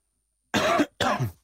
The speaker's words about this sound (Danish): Er der ikke sådan en hosteknap, så når jeg hoster, så kan man øh, bare trykke på den